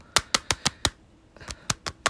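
Sharp plastic clicks and taps from an ordinary plastic CD jewel case being handled: five evenly spaced clicks, a short pause, then four more, crisp and fairly loud with no voices.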